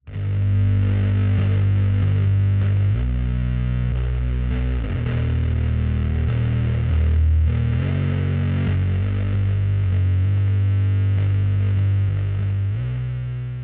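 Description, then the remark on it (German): Heavy doom metal guitar distorted through a fuzz effects pedal, played by a band from North Carolina, grinds out slow, sustained low chords, thick and saturated, playing loudly and continuously with no voices. “einem klassischen Element des Doom-Metals, und zwar dem Fass. Und das ist ein Effektgerät”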